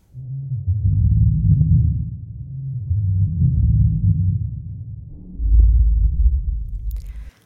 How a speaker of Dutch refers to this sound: niemand weet precies hoe een T-Rex wel klonk, maar sommige wetenschappers denken dat het misschien een heel diep trillend geluid was. Het geluid dat je nu gaat horen kun je het best met een koptelefoon luisteren. Misschien klonk een T-Rex wel zo.